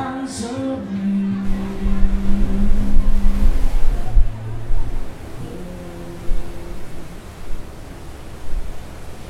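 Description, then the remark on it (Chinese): A steady, hissing wash of sea waves heard from a cabin balcony of the Royal Caribbean cruise ship Voyager of the Seas in the Strait of Malacca, with a low humming tone layered over it for the first few seconds before the surf continues alone. “啊，我想大家都听到了背景的这个海浪的声音。”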